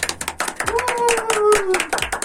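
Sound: hand clapping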